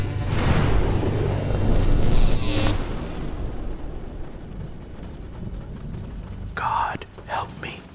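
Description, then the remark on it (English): A heavy rolling rumble of thunder opens loud, then fades into a steady hiss of rain from a growing storm, with a couple of brief whooshing gusts near the end. “Even now, this storm grows, and I fear for the worst.”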